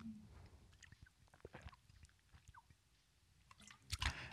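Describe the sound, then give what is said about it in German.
Quiet mouth sounds of someone drinking water: small wet clicks and gulps spread over a few seconds, ending in a louder breathy exhale. No one speaks. “Äh, hier ist nochmal eine Pause zum Wasser trinken.”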